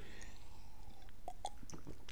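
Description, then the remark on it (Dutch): A quick sip of water: a few small wet mouth clicks and a soft swallow, quiet and brief, with no talking. “Even een slokje water.”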